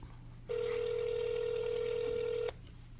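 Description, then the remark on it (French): A single steady electronic telephone tone sounds for about two seconds as a number chosen at random is dialed, clear and fairly loud against a quiet low hum, then cuts off abruptly. No one speaks. “On fait un numéro de téléphone complètement au hasard.”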